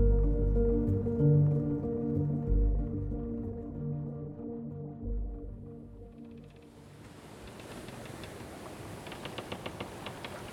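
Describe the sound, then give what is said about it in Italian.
Underwater sounds of dolphins that come to the bow of a sailboat: sustained low, droning tonal calls give way to a hiss of water scattered with rapid clicking bursts, steady, no voices. “i suoni, il vento, i rumori, eh, i delfini che ogni tanto vengono a prua, i rumori delle vele.”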